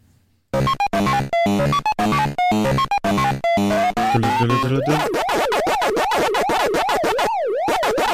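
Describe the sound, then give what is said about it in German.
The Pac-Man video game theme music: a bright, bleepy chiptune melody of quick staccato notes, then a looping wavering siren-like electronic wail that rises and falls repeatedly. No voices. “Und äh, das erste so richtige Lied, was äh, als Computerspiele Soundtrack auch äh, eigens komponierter, richtiger Soundtrack bezeichnet werden kann, ist eigentlich äh, der von Pac-Man.”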